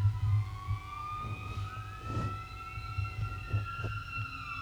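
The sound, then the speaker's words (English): A fire truck siren wails by outside, its rising and falling tones sweeping across each other over a deep engine rumble, fairly loud but slightly muffled, with no talking. “Hold on, it's about to get loud. We got a uh, fire truck coming.”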